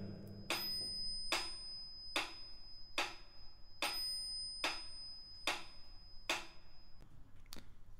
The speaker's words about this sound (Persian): صدای زنگی که از مترونوم میشنویم در واقع داره شماره یک رو به ما نشون میده در واقع ضرب قوی رو در مترونوم با صدای زنگ ما میشنویم